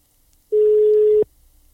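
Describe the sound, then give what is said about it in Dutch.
A single steady, mid-pitched beep of a telephone ringing tone on an outgoing call, lasting under a second and loud and clear against near silence, with no talking. “Nou god, hij gaat nog over ook.”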